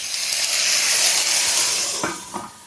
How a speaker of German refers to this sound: So, und dann gebe ich eine Brühe drauf. Die habe ich noch von vor ein paar Tagen. Die habe ich im Kühlschrank aufbewahrt, die ist noch gut.